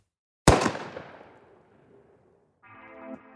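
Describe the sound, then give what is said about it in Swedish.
A single sharp pistol shot, fired at 23:21 where Sveavägen and Tunnelgatan cross, from about 10–15 cm behind Sweden's prime minister and hitting him in the back, cracks out and echoes, its reverberant tail fading over a second or two. After a short quiet, a steady tonal, harmonic sound rises near the end. “Innan paret hinner reagera hörs ett ekande ljud. Ett pistolskott.”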